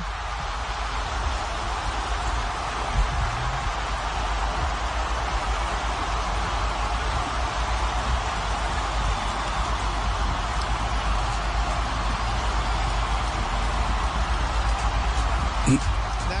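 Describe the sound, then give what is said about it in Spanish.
A dense, steady roar from a big stadium crowd after Linda Caicedo's goal for Colombia, a constant wash of many voices that stays loud and even throughout without fading. “Y dejan el ambiente abierto para que, para que se, escuche, se acompaña el grito de la relatora con, con eh, el murmullo. Eh, la vocinglería en las eh, tribunas después del tanto convertido por Linda Caicedo”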